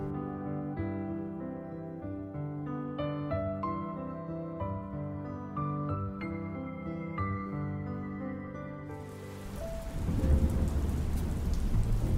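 A gentle melodic tune plays for several seconds, then gives way to a loud, steady downpour of rain, a dense hiss with a low rumble underneath, enveloping.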